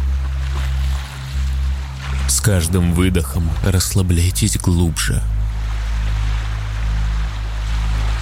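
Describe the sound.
Coastal ocean waves along the Fisherman's Trail in Portugal wash in a steady, continuous roar with a deep low rumble underneath, while a calm voice speaks softly over them for a few seconds midway.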